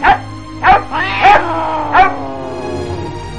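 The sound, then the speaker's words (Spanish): A hunting dog barks four times in quick, uneven succession, fairly loud, each bark ringing into a whiny, tonal tail before fading out, as it scares off a cat with a bite. “suerte es que el perro cazador se encontraba cerca y espantó al gato de un mordisco.”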